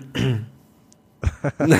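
A person clears their throat: one rough, voiced rasp, a short pause, then a few harsher, choppy guttural bursts in quick succession.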